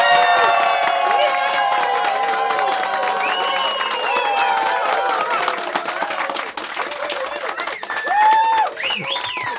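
A crowd of about 350 people applauds loudly and steadily, dense clapping mixed with cheers and excited shouts and whoops throughout, the roar sustained from start to finish.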